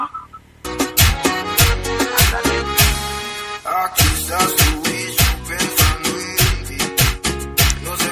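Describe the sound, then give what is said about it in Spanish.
Upbeat cumbia music plays loud, with a steady, bouncing percussion beat driving under bright melodic instruments, and no voices over it; cumbia played on air on a Tuesday. “En el mejor día del poder del fútbol, los martes villeros, los martes cumbiamberos, y es por eso que esta mermelada suena así.”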